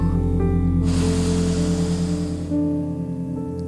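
A long, airy, breathy deep inhale during a guided breathing exercise rises for about a second and a half over a steady, low droning music bed, then fades back to the calm drone.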